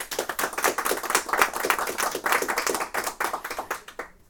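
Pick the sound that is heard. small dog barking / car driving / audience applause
audience applause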